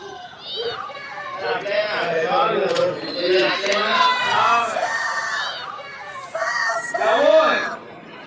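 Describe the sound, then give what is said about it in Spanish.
Many overlapping voices shout and call out at once, steady and loud for several seconds, with high, excited children's cries rising above the crowd near the end. “Ahí escuchamos gritos.”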